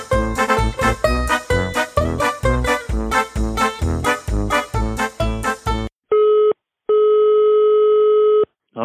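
Upbeat music plays for several seconds, then cuts to a steady electronic ringing tone of an outgoing phone call to a man at a campsite in Brabant: one short pulse, a brief pause, then a longer tone.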